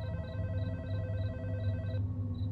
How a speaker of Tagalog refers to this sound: Pero maya-maya ay tumawag na rin si Ate Di sa cellphone ko.